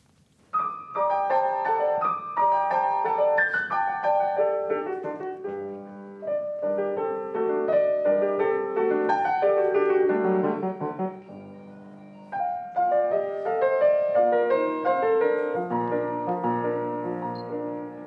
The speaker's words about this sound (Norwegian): Kjente toner for nordmenn lyder gjennom mottakelsessalen til den norske ambassaden i Beijing. Men det er den kinesiske pianisten Mei Yupang fra Kinas sentrale musikkonservatorium som trakterer tangentene og tryller fram Edvard Griegs 'Halling'